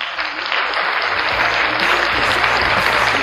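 A crowd claps steadily to welcome a radio English-learning show host as a guest, a dense, continuous patter of many hands that swells slightly after the first half-second and holds at a fairly loud, even level throughout.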